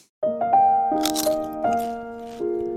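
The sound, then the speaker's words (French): A few short, crisp crunching bursts over sustained, steady musical tones that shift pitch a few times, with no talking. “Croustille, hein”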